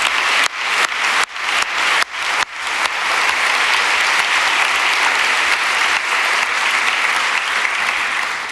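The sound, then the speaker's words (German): An audience breaks into loud, sustained applause for three guests who have just spoken, starting with a few scattered, uneven bursts of clapping before swelling into a dense, steady roar of many hands that holds to the end. “erstmal vielleicht nochmal einen richtigen Applaus für euch drei, weil ich fand euch richtig cool.”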